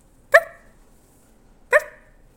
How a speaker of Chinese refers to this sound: It's a puppy，是一只小狗，太棒啦！